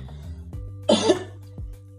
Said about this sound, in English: I'm coughing a lot, but like, yeah, you know.